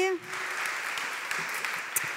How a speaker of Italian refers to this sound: Facciamo un applauso alle persone che sono qui oggi per la prima volta, benvenuti.